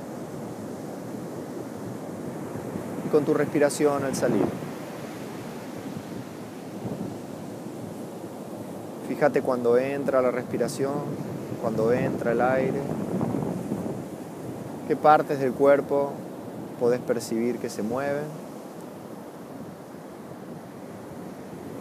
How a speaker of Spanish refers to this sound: Puedes escuchar de fondo el océano.